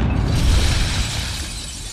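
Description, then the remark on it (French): A loud explosion with windows breaking apart, a dense crash of shattering glass and debris that rumbles low and slowly fades over two seconds, with no voices. “Et ça fait bim, bam, boum, ça fait pchit et ça fait boum, Eh bien, Minus, vous aurez beaucoup moins de fenêtres à nettoyer.”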